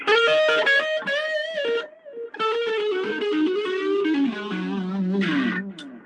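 An electric guitar plays a busy run of notes through a small Blackstar amp, each phrase trailed by repeating delay echoes that blur together. The tone is bright and slightly gritty, steady in volume, with no voices.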